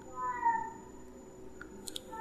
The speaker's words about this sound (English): I think I hear my cat out in the hallway. Can you guys hear that?